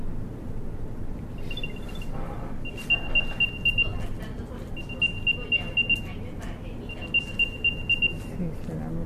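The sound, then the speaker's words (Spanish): An AirTag tracker on a set of keys, triggered through Siri to find them, chirps a high, thin locating chime in four short runs of rapid pulses, moderately quiet against a steady rumbling background noise. “Ahora voy a hacer que suene el ataque que dura mucho menos.”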